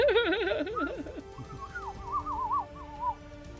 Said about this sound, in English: Get out of here, you darn birds!